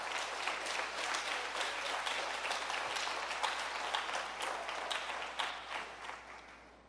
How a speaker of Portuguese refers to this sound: Você pode aplaudir o nome do Senhor. Aplauda o mais alto que você puder.